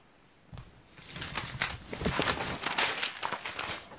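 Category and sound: household object, rustling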